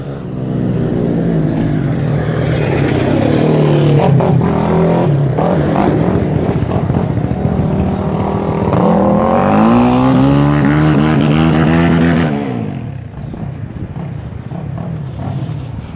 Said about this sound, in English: Um, that's that was two two people riding ATVs in the in this uh, uh, on the roads.